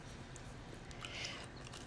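A single crisp bite into a chocolate cookie, quiet, with faint chewing afterward and no talking.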